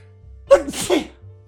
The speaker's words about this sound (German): Hatschi.